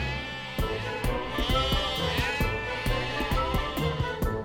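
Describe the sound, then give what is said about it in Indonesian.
A goat bleats loudly in a long, wavering cry as it runs and struggles, pulling on a rope held by a thin old man, with sharp clicking knocks breaking in at irregular intervals underneath. “tak lama, seekor kambing berlari meronta dan menarik tali yang dipegang seorang laki-laki tua dengan badan kurus tak berbaju, sedang kewalahan berusaha menenangkan sang kambing.”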